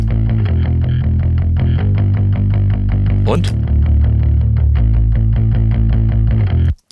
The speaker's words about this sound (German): Bei 60 Hertz drehen wir mal nicht 3 dB rein, sondern drehen wir mal richtig rein. 6 dB.